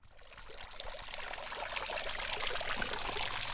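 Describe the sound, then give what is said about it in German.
Water splashes steadily from a fountain in front of a small town hall diagonally across from a church, a continuous bright pouring and trickling that stays fairly loud throughout, with no voices present. “Vor dem kleinen Rathaus schräg gegenüber der Kirche, wo der Springbrunnen plätschert”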